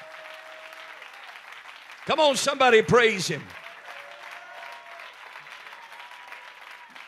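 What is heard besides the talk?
audience clapping hands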